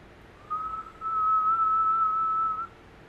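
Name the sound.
eerie whistling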